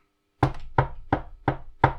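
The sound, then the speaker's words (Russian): Five steady knocks on a wooden surface, evenly spaced, each a sharp hollow rap with a short ring, with no voices. “Да, постучать по дереву.”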